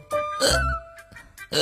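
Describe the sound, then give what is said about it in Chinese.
A voice imitates a kitten hiccuping: about four short, throaty, voiced hics in quick succession, fairly loud, with brief pauses between them and no other talk. “小鼹鼠，我老是打嗝，怎么办呀？小猫问。”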